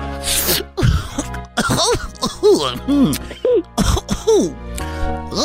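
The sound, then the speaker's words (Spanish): A person in a Barney costume coughs and clears their throat while smoking marijuana, in rough, raspy bursts, fairly loud, mixed with strained vocal sounds that may be an exaggerated imitation of coughing. “Pues es Barney tosiendo, güey, pero marihuana sí.”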